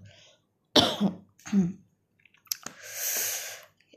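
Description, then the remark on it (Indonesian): Two sharp coughs in quick succession, then a few clicks and a rasping, breathy throat clear fading out. No talking. “padahal gue lagi batuk-batuk ya maaf ya”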